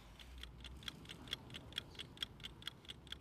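Several clocks tick together in the Colyton Clocks clock shop in a steady, overlapping rhythm, with sharp, bright clicks at slightly different paces over a quiet background hum.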